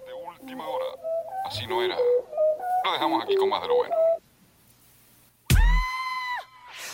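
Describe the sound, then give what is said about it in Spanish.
A newly released pop single from a new album plays, with bright melodic synth and sung vocal phrases stepping through pitches, then a brief silence before a loud, sustained tone bursts in. “Ellos estrenan este sencillo que forma parte de su, nuevo álbum, que muy pronto vamos a poderlo escuchar”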